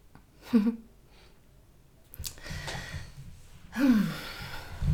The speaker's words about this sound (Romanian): Da, este, este și mai ales um, de ce respir așa greu.